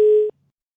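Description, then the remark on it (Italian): A single telephone busy-signal beep after a phone line dropped during a live call-in connection: a steady, mid-pitched electronic tone lasting under a third of a second, cutting off abruptly into silence. “Eh, eccoci, vediamo un po' se, se riusciamo se la linea è caduta o c'è stata un'interruzione.”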